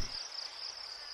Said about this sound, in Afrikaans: Hy hoor hoe die krieket chirp.